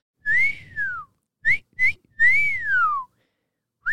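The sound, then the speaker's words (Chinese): A person whistles an imitation of a nightingale's song: a long, clear whistle gliding downward, two quick high chirps, then another long rising-and-falling whistle. A final chirp begins just as it ends. “好了，猫腿夜莺还是学一下，我个听根本就是夜莺的叫声嘛。”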